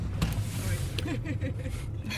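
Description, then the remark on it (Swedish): Steady low rumble of a car cabin in motion during an interview, a constant droning hum filling the background while a person speaks over it. “Det är, det är speciellt att bli intervjuad i en bil kan jag säga.”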